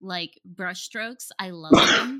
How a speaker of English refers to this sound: Bless you. Bless you.